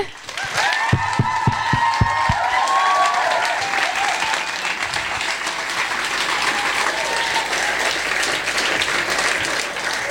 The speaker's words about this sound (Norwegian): Enda en applaus for dem og for dere.